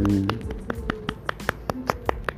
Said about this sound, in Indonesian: Tepuk tangan.